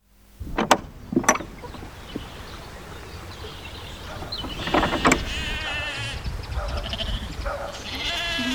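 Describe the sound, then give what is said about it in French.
Several sheep bleat in a sheepfold at Nord-sur-Erdre, their wavering cries overlapping and rising in the second half, after a couple of sharp knocks near the start. Nobody speaks. “Donc là, on est dans la bergerie Terre et Baie.”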